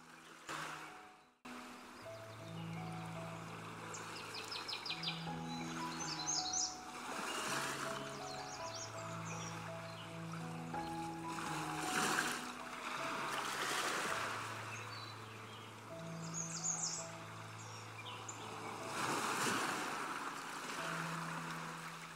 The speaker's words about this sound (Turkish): denizin dalgalarının ritmine uyumlanıyorsun. denizin ve doğanın sesi gittikçe rahatlatıyor.